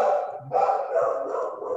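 A dog barks in the background, its yelps running together into a sustained, somewhat muffled stretch with a brief pause near the start, heard alone without talking.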